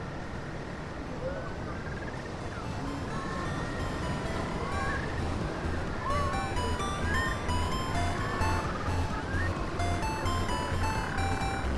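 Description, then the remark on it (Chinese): A busy chorus of little penguins returning at the seashore on Phillip Island, Australia, with overlapping chirps, squeals and braying cries over a steady rumbling background, continuous and fairly loud throughout. “就像你刚刚片头听到的，可能是小企鹅在海边回来的声音这样子。”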